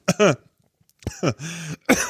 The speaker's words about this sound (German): es ist so schlimm, dass ich einen Hustenanfall bekomme. Sorry. Ähm, Jetzt wäre eine Räuspertaste gut.